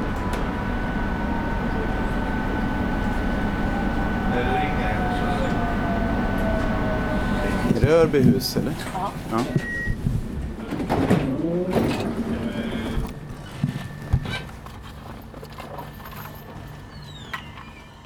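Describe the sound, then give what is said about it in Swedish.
A train departing from Örbyhus, Sweden, in winter with snow on the ground rumbles steadily with a thin mechanical whine, then recedes and fades into the distance as pigeons coo. A person speaks a few brief words. “Där drog tåget iväg i fjärran.”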